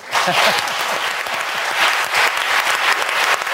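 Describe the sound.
A studio audience applauds a guest who is being thanked, a dense wash of many hands clapping at a fairly loud, even level for several seconds, with a few voices faintly mixed in.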